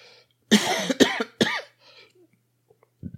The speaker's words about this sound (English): Plus the cough.